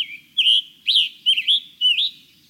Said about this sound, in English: Songbirds, like the scarlet tanager and hooded warbler we've been hearing, birds that migrate long distances need to complete this process on a tight schedule.